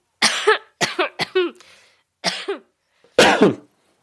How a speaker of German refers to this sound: Der Hust-Contest. Okay, wer, ihr könnt ja mal in die Kommentare schreiben, wer gewonnen hat.